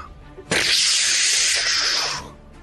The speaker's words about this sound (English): You are looking into its mouth, um, nice. and it will it will open its mouth, and a cone of scalding steam,